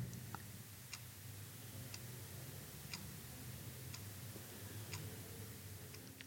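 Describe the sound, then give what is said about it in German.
A clock ticks steadily at roughly one tick per second, faint, in an otherwise quiet living room with a low background hum and no one speaking. “vom Ticken der Uhr”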